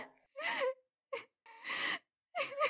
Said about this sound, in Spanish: Personas relataban haber escuchado lamentos en el transcurso de la madrugada